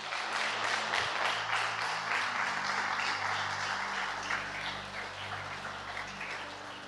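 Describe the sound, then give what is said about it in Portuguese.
A large audience applauds steadily for several seconds, a dense, loud wash of many hands clapping at once, with a low sustained keyboard tone humming underneath. “Você podia ter dado uma linda salva de palmas.”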